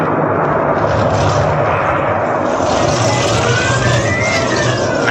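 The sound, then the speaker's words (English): A loud, unbroken roar of a storm at sea, heavy waves crashing and churning with a deep rumble underneath, filling the whole stretch without any voices. “And then a storm came on.”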